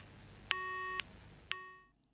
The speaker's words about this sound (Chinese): 此时，电话听筒里传来一阵忙音，就是在吊扇砸下来那一刻，对方挂掉了电话。